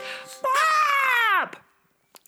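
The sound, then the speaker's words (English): A person's voice imitates the squawk of Boris the bird, a bird with black feathers: one loud, drawn-out, nasal cry lasting about a second that swoops down in pitch at the end, followed by near silence and a couple of faint clicks. “Did you squawk with us?”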